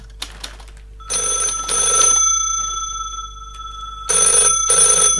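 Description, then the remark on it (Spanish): A telephone rings in two bursts of bright, trilling bell tones, loud, with a short pause between them and no voices. “Oh, ha sonado el teléfono.”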